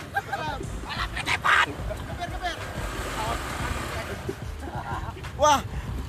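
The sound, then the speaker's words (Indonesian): A rubber chicken toy is squeezed and squeaks sharply twice, once early and once near the end, with honking, wavering tones over a rumbling, noisy background and some talking. “Ayam penyet apa ayam pencet? Ayam pencet.”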